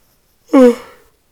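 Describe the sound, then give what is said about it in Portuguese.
A single short yawn, voiced and breathy, sliding downward in pitch and fading out over about half a second. Fairly loud, with silence before and after. “Último bocejo do episódio de hoje.”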